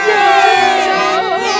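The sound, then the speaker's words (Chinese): A loud crowd of Lilliputians cheers, many high-pitched voices shouting and yelling together in a steady, unbroken roar for under two seconds, with no single voice standing out. “利利浦臣民的欢呼声音直上云霄”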